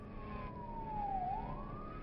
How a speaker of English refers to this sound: I then heard sirens outside my window. It was a police car.